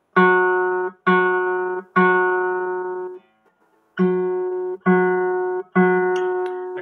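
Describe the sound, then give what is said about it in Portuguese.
A single guitar note is plucked six times in a steady rhythm, showing the difference between plucking with the corner of the fingernail and with the fingertip; each rings with bright harmonics before being cut off; the first three plucks sound sharper, the later ones a bit softer and rounder. “Mas ao invés de tocar com o canto da unha, a gente tenta tocar com a ponta. Isso tende a deixar o som um pouco mais aveludado.”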